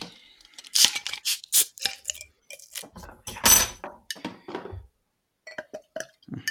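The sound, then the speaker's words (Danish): Metallic clinks, scrapes and rattles of a large capped Belgian beer bottle being opened, with a few sharp bright bursts and small glassy taps, followed by quieter fizzing and light handling sounds. “Ja, og det, og det har vi også brug for til emnet i dag, men nu skal vi lige starte med at åbne den.”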